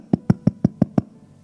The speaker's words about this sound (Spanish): Y de repente tocan la puerta.